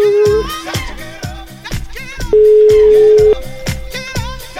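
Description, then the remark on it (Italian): A steady, low telephone ringing tone of an outgoing call placed on air sounds in two long beeps, one brief at the start and a fuller one-second tone midway, over a busy, rhythmic music bed. Nobody speaks. “Ultimo squillo, devo chiudere purtroppo.”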